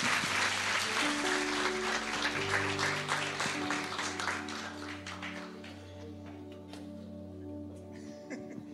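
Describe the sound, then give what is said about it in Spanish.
An audience applauds the models at a church course on finances, with dense, steady clapping that tapers off after about five seconds, while sustained low keyboard chords continue underneath and carry on alone to the end. “Y démosle un aplauso a nuestros modelos,”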